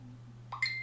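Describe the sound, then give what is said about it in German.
A brief electronic notification beep sounds from a mobile phone that was left switched on, a thin high tone that rings on for a moment, faint against a steady low background hum, with no one speaking. “Entschuldigen Sie, das war mein Handy.”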